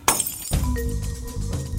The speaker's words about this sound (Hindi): उसके पीछे बाहर बाथरूम का बल्ब फूटने की आवाज आई